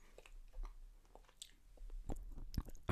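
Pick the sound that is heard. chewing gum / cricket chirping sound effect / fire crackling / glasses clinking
chewing gum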